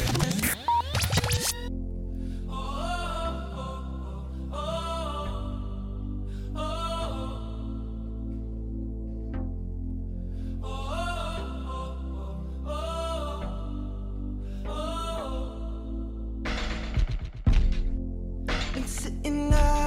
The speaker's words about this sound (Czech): Čeho se ale dočkáme už teď je další, už poslední hit dnešní hitparády